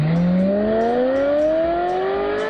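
A getaway car's engine revs hard and accelerates as it speeds off from the roadside of a busy city street after three people run out of a bank and jump in. Its loud whine climbs steadily in pitch over a couple of seconds, with no voices.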